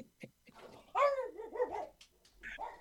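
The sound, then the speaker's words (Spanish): A dog lets out a loud, drawn-out bark that slides into a whiny tail, with a few softer yips around it, close by and with no one talking. “Hasta el perro estuvo de acuerdo.”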